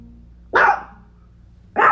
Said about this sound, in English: sorry have a chihuahua right here. She's upset because somebody else is barking. Another dog.